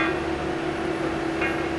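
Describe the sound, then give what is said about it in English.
Hot, noisy railroad maintenance machinery placing a brand new railroad tie underneath the rails in the stone bedding drones steadily a few feet away with a sustained low hum and blowing exhaust, broken by a couple of brief, faint metallic clanks against the rails. “a large machinery is placing a brand new railroad tie underneath the rails in the stone in the stone bedding and you can hear it clanging away it's hot it's noisy its exhaust is blowing right on me it's just a few feet away”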